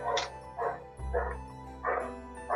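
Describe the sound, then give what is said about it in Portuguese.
A dog barks in a backyard in a steady series of about five sharp woofs, roughly one every half second, over a low background hum. “Só não é mais do que o cachorro do meu primo que tá latindo no quintal”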